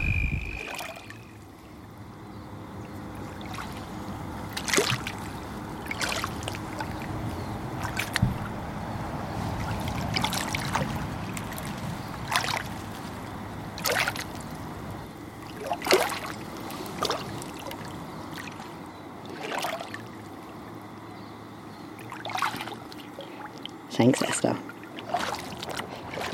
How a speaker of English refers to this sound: I'm walking in the shallows of what's now known as the Ovens River in the borders of Taungurung country